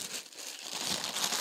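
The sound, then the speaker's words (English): Crinkling plastic packaging of new bras being opened, a continuous dense rustle and crackle of plastic that grows busier and brighter toward the end, with no voices. “Well, that's the sound of me opening up my some bras from True Body.”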